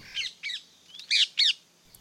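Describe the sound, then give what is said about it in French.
A green, long-tailed parakeet with a red and black beak, in Paris, gives a series of harsh, strident squawks, four loud screeches in quick succession with short gaps, clear with no talking. “Plumage vert, queue longue, bleu azur et bec rouge et noir, cet oiseau peu discret aux allures de petit perroquet annonce aussi sa présence de son cri strident.”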